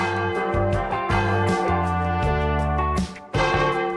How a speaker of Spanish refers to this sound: Ya empieza, doblan las campanas.